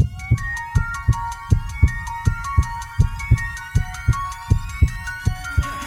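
A steady heartbeat thumps in low, paired pulses at a regular pace, layered with a bright, sustained musical jingle of chiming tones above it. No one speaks.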